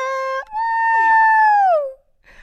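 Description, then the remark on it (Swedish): A voice imitates how a woman screamed at a marriage proposal on Christmas Eve: a short held high, piercing cry, then a longer sustained wail that slides downward before cutting off, loud. “Alltså så skrek jag inte.”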